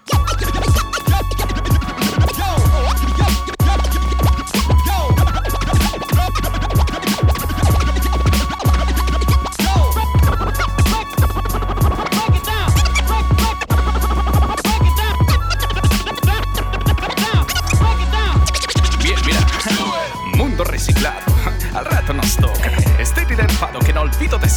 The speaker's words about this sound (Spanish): Menuda coincidencia con esto que fue el primer avance de su último disco